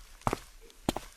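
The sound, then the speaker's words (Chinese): Footsteps of Nobi Tamako walking to the foot of the stairs while pinching her nose against a foul smell: two pairs of quick, firm steps separated by a short pause, each a sharp thud with no voices over a faint background hush. “他捏着鼻子走到了楼梯下。”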